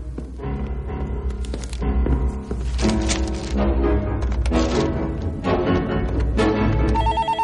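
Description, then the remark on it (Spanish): A telephone rings loudly in an office in repeated bell-like bursts, set against a dense, busy backdrop of other tones and occasional thumps, with no one speaking. “El teléfono suena en el despacho y Mejía, el hombre que visitó a Gines en la cárcel, entra para atenderlo.”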